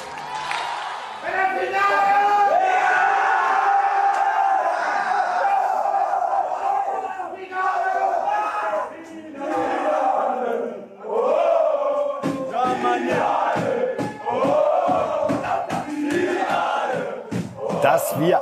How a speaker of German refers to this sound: eine deutsche Nationalmannschaft mal wieder hören, wie sie Finale, Finale anstimmt. Wunderbar. Zu verdanken haben wir es der U17, die gerade bei der Weltmeisterschaft das Finale, wie sie so richtig gesungen haben, erreicht haben